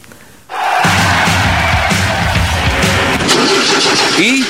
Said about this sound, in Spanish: ¿Arranca o no arranca? Siempre arranca con bujía Gescher para motores diésel.